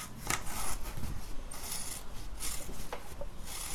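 Scissors snipping through paper freehand, without a drawn outline, in traditional Chinese paper cutting, a quick, uneven series of crisp rasping cuts and rubbing sounds, fairly quiet, with no voices.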